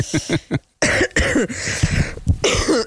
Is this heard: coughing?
yes